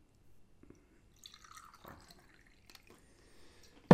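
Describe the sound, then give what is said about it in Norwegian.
Harlow Bristol Cream sherry poured into a glass: a quiet, uneven trickle with small drips and splashes over a few seconds, ending in a sudden louder knock. “Uh, nå gjør det vi ikke fikk lov til da i studiet, nemlig forsyne oss med Harlow Bristol Cream.”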